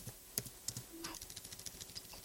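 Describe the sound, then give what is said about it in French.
Rapid typing on a computer keyboard as questions are being noted down, a quick irregular run of light clicks and taps, with no one talking. “Parce qu'elle est, elle est convaincue que quand on entend le bruit de clavier, c'est que je suis en train d'écrire des mails à côté, mais en fait non, c'est parce que je note mes, les questions qui viennent au fur et à mesure.”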